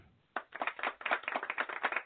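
A brief burst of applause starts abruptly after a short quiet moment, a dense patter of many overlapping claps sounding thin and slightly muffled, with no voices.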